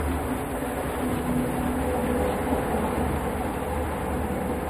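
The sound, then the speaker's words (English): Steady, dense rumble of a train running on the tracks as it passes another train, a red one, with a broad continuous roar and low mechanical hum. No one speaks. “We're passing another train.”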